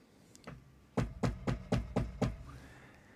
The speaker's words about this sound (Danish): at der kommer til at banke nogen på døren. Og de mennesker, der kommer til at banke på døren, de har enten et politiskilt, eller så de militære striber på